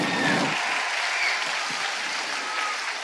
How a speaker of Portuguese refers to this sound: Mas, gente, uma salva de palmas para eles, vocês podem sentar.